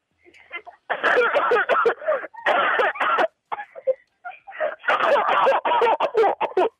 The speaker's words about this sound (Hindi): ये आपकी खांसी के अंदर ना दर्द था पता है आपको